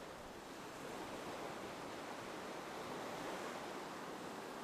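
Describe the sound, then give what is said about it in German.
A steady, continuous wash of ocean surf, a soft hiss and rumble with no distinct breaking waves, heard quietly with no voices. “nimmst du wahr, was für ein Meer das ist, welche Farbe die Wellen haben.”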